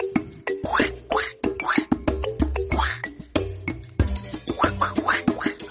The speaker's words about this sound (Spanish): Ay, ay, ay, pero qué pena contigo, señor Pato. No había encendido mi traductor animalista A3000.